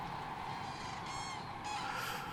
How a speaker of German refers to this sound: es ist Frühjahr und ich weiß, sie kommen von weit her oder sie ziehen weit hin und sie haben eine unendliche Freiheit da oben. Also wenn diese Vogelgeräusche nicht mehr wären von den Zugvögeln, dann würde mir wirklich was fehlen. Zweimal im Jahr.